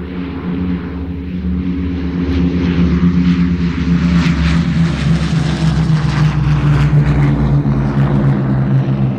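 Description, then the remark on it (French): Heavy propeller aircraft engines drone overhead, a loud steady throbbing roar that swells slightly as the planes pass, with no voices: three planes parachuting supplies to besieged soldiers over rugged terrain in bad weather. “Le 29 octobre, trois avions sont chargés de parachuter des vivres aux assiégés.”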